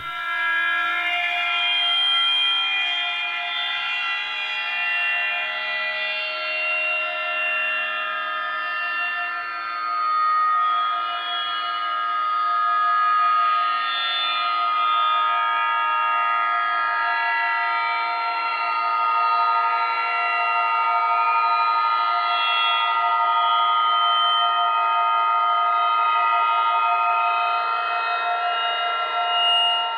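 An electroacoustic music composition: a sustained, dense electronic drone of layered tones, like a train horn chord, holds steadily for the whole stretch with slow shimmering shifts and no voices.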